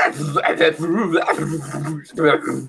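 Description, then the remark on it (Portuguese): A person imitates a car engine starting with their voice, making growly, sputtering rumbles in a sustained burst, a short pause, then a final revving sound. “É, esse daí parece o som do meu carro ligando, mano.”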